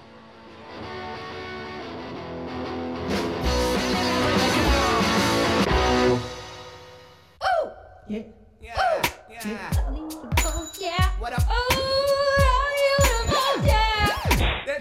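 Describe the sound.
A loud, raw garage rock song played on the radio station Radio Revolt, with a dense wall of distorted guitar giving way to punchy, stop-start drum hits and a singer's shouted vocals, energetic.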